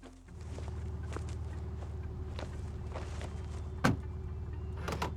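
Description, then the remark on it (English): Footsteps and shuffling as people climb into a car, with a low engine hum running underneath, a few soft thumps and a sharper knock like a door or seat being bumped. “Now get in the car.”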